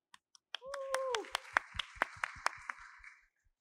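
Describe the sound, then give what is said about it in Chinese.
An audience at a live talk on 2024 AI and new technology trends breaks into applause to welcome two guest speakers: a dozen or so sharp, separate claps over about three seconds, with a short rising-and-falling cheer near the start and a hiss of crowd noise that fades out. “同时，这整个过程也是 Podcast 的节目录制过程，也请大家可以热情的鼓掌欢呼，欢迎我们的这两位嘉宾。”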